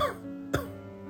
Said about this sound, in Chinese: 师傅先是意味深长的微微一笑，然后。若有所思地愣了一下，之后不由自主地咳嗽了两声